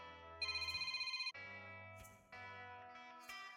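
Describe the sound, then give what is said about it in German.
A melodic phone ringtone plays on its own, a bright electronic tune moving through several sustained tonal phrases, loud with no voices. “Oh, mein Telefon. Augenblick bitte.”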